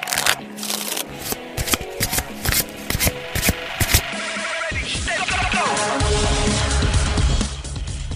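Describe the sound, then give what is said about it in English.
Playing cards are shuffled: a series of crisp, papery riffles in quick bursts, then a longer continuous cascade of cards, with a low rumble entering near the end. “It's time to shuffle up and deal”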